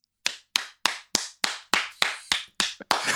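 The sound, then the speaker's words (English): A single person claps about ten times in a steady, fairly quick rhythm, applauding Joe Biden's dogs' names, Champ and Major. Each clap is sharp with a short ringing tail. No one speaks. “We're getting a round of applause”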